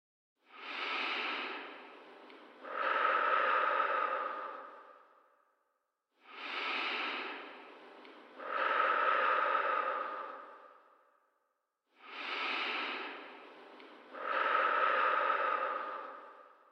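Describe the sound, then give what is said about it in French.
Three deep, slow breaths, each a soft airy inhale followed by a fuller, longer exhale, repeating at a calm, steady pace of roughly six seconds per cycle, with silence between, as a cardiac coherence breathing exercise at six breaths per minute. “Commencez par respirer profondément et calmement.”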